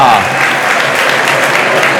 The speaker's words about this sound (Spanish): Y esto tiene que poner a, Raúl, vamos, eh, con los pelos de punta, ovación con la jugada